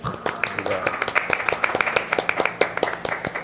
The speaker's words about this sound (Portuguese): Senhoras e senhores, vocês estão aí em casa. Palmas para